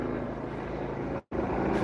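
A steady, fairly loud air ambulance helicopter drone with a low rumbling pulse hangs over everything as it flies overhead, cutting out for a split second near the end before resuming. No one speaks.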